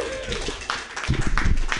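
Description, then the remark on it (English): A small audience at a comedy show claps briefly for the next comedian, producing a short burst of scattered, uneven hand claps over a low room murmur that lasts under two seconds. “Clap your hands together for your next comedian,”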